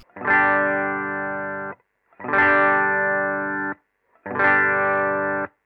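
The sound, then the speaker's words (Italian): A clean electric guitar with no effects at all plays three strummed chords, each ringing about a second and a half before stopping abruptly, with short silent gaps between and no reverb or echo tail. “Partiamo con la chitarra clean, completamente pulita, senza nulla.”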